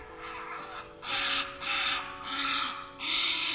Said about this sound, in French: Il choisit la parade, perché sur son nid, pousse de grands cris, des cris séduisants, pour qui parle couramment le héron.